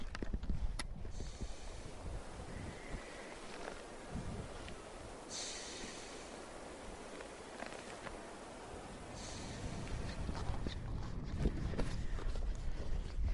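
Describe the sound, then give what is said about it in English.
A Weddell seal, lying soaking up the sunshine, breathes loudly, with heavy snorting exhalations and hissy bursts of breath at intervals over a steady, rough outdoor background. “I'm going to try and get closer so you can hear, hear how loud a Weddell seal is at breathing.”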